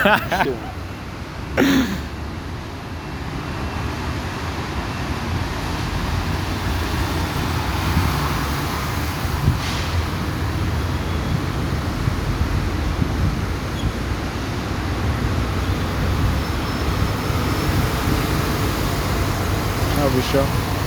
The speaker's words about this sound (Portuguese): Nossa, do nada o trem no bagulho. É o trem, mano. Puta áudio aleatório, do nada um trem passando.